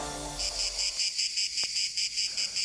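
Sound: cicadas singing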